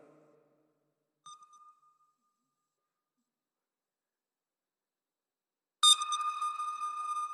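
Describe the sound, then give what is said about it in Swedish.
A sonar-style ping ringtone plays from a phone: a faint, short ping, several seconds of silence, then a loud, bright ping that rings on and slowly fades. “Alltså det här är ju ljudet av en sån här sonar.”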